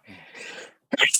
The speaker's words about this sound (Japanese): くしゃみしちゃった、わかんなすぎて。